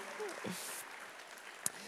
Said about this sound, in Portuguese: Você pode dar uma salva de palmas para os nossos visitantes?